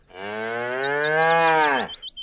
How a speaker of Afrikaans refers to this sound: Terwyl ouma die pap maak, melk Susaar hulle koei Bessie. Hoor jy Bessie? Groet Susaar vrolik wanneer sy die koei gaan melk.